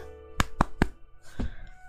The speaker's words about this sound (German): Das finde ich, äh, da kann ich mir auch mal auf die Schulter klopfen.